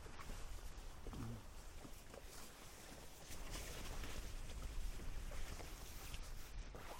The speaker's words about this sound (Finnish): Mutta nyt loppuu tämä pölytys ja otetaan Hook-audio mukaan ja lähdetään pienelle retkelle nyt ollaan tosiaan tullut keinuvalle laiturille ja alla liplattaapi.